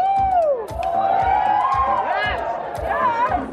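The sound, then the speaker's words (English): A large crowd of teenagers cheers and screams at the top of their lungs while holding up phones to record, high-pitched shrieks and whoops rising over a dense roar of voices, loud throughout. “At this point, the crowd is going nuts.”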